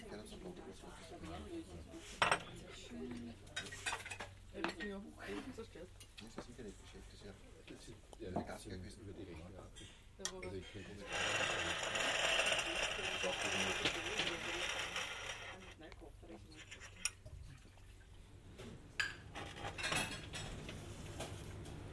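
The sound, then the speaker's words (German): Dishes and cutlery clink and clatter repeatedly, moderately loud, with a denser burst of clattering midway, while people talk over the noise. “und Klappern und in der Schwade des Kochdampfes der sich in diese Schwade mischenden Parfümodeur unterschiedlichster Provenienz.”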